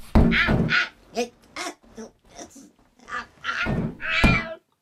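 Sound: tomcat meowing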